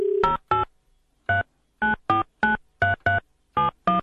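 A quick series of about eleven telephone keypad tones, short evenly spaced beeps dialed in an irregular rhythm to place a phone call, loud with silence between them.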